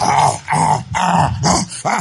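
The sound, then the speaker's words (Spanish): A werewolf growl sound effect: five loud, rasping snarls in quick succession, each a short guttural burst with brief gaps between, and no talking. “Mire, el hombre lobo.”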